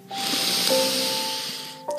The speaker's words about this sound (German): Wir atmen ganz tief durch die Nase ein